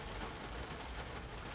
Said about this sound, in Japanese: 今日は雨が降っているのでちょっとね俺の話している後ろで雨の音が聞こえると思いますうるさいかもしれませんが今は雨の季節なのですみません